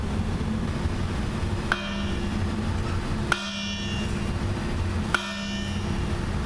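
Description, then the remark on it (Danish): Three separate ringing clangs of a smith's hammer on an anvil, spaced a little under two seconds apart, each bright metallic strike fading over a steady low hum, as the smith makes in-between strikes (mellemslag). “Det er jo derfor, altså, når en smed han står og laver mellemslag, så er det jo en ting er for rytmen at stå og vende emnet, men det er altså også ligesom bare for at få slappe af i hånden”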